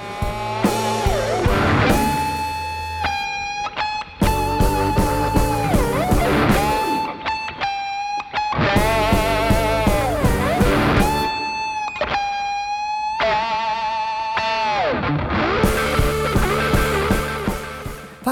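Rock band music featuring a loud, distorted electric guitar solo with sustained, bending notes over a steady rhythm section, without any vocals.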